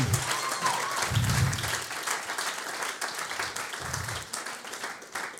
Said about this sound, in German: Diesen fetten Applaus kriegen mal die Techniker. Die kriegen mal die Techniker.